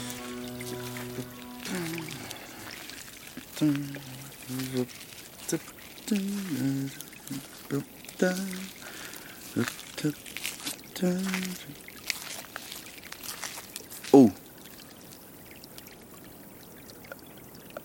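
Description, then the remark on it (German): A babbling brook flows steadily at four in the morning, a continuous rush of trickling water, with brief tonal vocal sounds rising and falling over it at intervals. “Um Viere in der Früh am Bach.”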